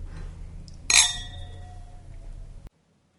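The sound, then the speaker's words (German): A single bright clink of glasses touching in a toast after drinks are poured, ringing with a high, sustained tone that slowly fades over a low background hum before cutting off. “Ich mag dieses Geräusch auch so. Ja. So. Stößchen.”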